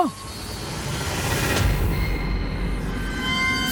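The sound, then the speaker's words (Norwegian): A metal claw grinds along a slide in a loud, continuous scrape as sparks shoot out from it and it scrapes its way into the slide and gets stuck, with shrill metallic squeals riding over a low rumbling roar for several seconds. “Og nå skyter gnista ut fra kløren. Bolten er sjokkert. Krampus har satt seg fast. Kløren har skrapt seg inn i sklia”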